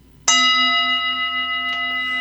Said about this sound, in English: And so, as this bell was rung, uh-huh. there's something that happens in that,